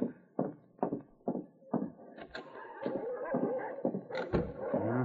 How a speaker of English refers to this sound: The dogs, which usually burrowed into a snowbank alongside the shed, were snapping over the dried caribou Milo had thrown to them.